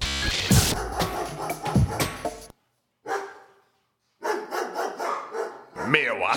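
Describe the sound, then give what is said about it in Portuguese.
A dog barks in several loud bursts, broken by a brief pause, with people talking over and around the barking. “Este cachorro está incomodando.”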